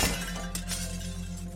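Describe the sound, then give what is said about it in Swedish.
A bedroom window pane shatters in a sharp crash as a thrown stone breaks through it, followed by a couple of bright bursts of breaking glass, all over a steady low droning hum. “Mitt sovrumsfönster var krossat och en smutsig sten låg på mitt golv.”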